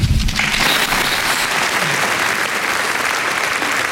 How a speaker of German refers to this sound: Nach der Rede gab es minutenlangen Applaus, stehende Ovationen.